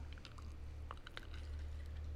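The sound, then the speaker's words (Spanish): A person takes a big swig of a drink: a few soft gulps and mouth clicks over a low room hum, with no talking, ending in a sudden louder bump. “Uf, deja, bebo un fuerte trago.”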